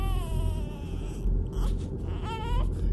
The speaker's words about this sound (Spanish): escuchó de pronto chillidos, como los de un niño muy pequeño, cosa que le puso los pelos de punta. ¿Cómo va a haber un niñito aquí? se preguntaba.